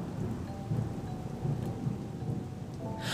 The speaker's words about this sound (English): On that day, the sun was blotted out by black skies overhead. The wind was boisterous, and to top it off, it started to rain violently.